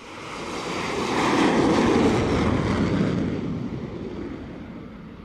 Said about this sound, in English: Then, the front wheel of the plane is attached to machinery under the deck, the catapult, which literally flings it off the edge of the deck like a pebble from a slingshot.